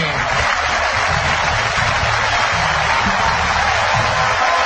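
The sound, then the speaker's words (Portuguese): A football stadium crowd stands to applaud captain Walter Flores as he leaves the field, a dense, continuous roar of clapping that stays loud and steady throughout, with no single voice standing out. “La gente se está parando para aplaudir al capitán celeste.”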